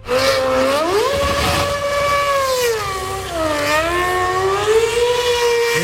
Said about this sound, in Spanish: un Red Bull corriendo por las calles de Madrid en una exhibición que se ha disputado en los últimos días.